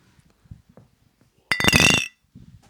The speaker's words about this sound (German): Habt ihr noch Bier drin? Habe ich noch Bier drin? Moment, ich glaube schon. Ja. ja dann Ein müssen wir, noch mal, müssen wir einmal noch anstoßen, oder? so.